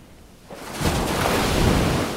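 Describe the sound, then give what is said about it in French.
Sea waves surge onto a beach at Madras, India, in 2005, as a person walks into the sea: a quiet wash swelling after half a second into a loud, steady roar of breaking surf that fills the rest of the moment, with no voices. “Les bras levés avec mon voile de mariée à la main, je rentre dans la mer et sens le courant et les vagues qui entraînent mon voile.”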